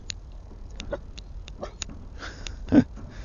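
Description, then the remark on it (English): A dog makes small snuffling and clicking noises over a few seconds, ending with one louder, brief huff or whimper near the end. No one speaks. “My dog is with me, as you can hear.”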